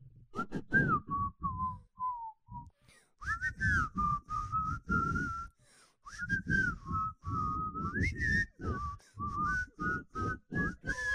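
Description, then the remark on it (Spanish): A person whistles a bright, bouncy melody, the intro tune of a song now used in a Nescafé commercial, the notes gliding and pulsing in a steady rhythm with brief pauses between phrases, alone with no talking. “están utilizando el chiflidito de la canción del intro de Robin Hood para un comercial de Nescafé”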